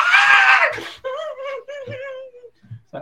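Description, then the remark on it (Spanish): A voice lets out a loud, shrill excited scream for about a second, imitating a thrilled fan, then trails into a wavering drawn-out 'ahh' and a couple of short vocal sounds. “Yo gritando.”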